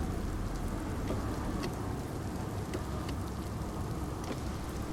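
Steady rain patters on a car's roof and windshield, with scattered sharper drops over a low, constant road rumble from inside the moving vehicle. No one speaks.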